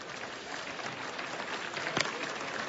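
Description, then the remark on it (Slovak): A dense wash of clapping from an audience, steady and moderately loud throughout, with one sharper clap standing out near the end; applause requested for papal prelate Father František Šľušarčík, a priest, during thanks given at a radio event. “A teraz také mne blízke poďakovania pápežský prelát, otec František Šľušarčík, kňaz, prosím potlesk,”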